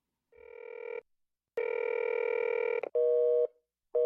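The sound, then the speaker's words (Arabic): A telephone line busy signal, heard while calling a rental company whose customer service staff were all busy: electronic tones broken into several steady beeps of uneven length separated by short silences, the later beeps slightly different in pitch. Clear, with no talking. “لكنني بدأت أشعر بالغضب الشديد وأنا أستمع إلى صوت انشغال الخط.”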